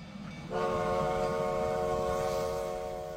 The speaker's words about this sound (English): Its official name is the Black Hills Central Railroad, and it's known as the 1880 train.